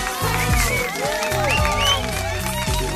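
An audience applauds in a steady, dense patter of clapping lasting a few seconds, mixed with whoops and overlapping voices, over a low, pulsing musical bass underneath.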